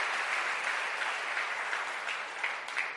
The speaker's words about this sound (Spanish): Oh, démosle ese aplauso fuerte al Señor.